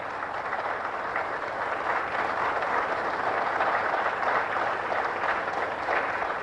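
The French National Assembly (Assemblée nationale) bursts into sustained applause in an archive recording, a dense, steady wash of clapping from many hands that holds at an even level throughout, with no voices standing out.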